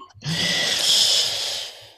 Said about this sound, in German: was riechst du und was schnaufst du?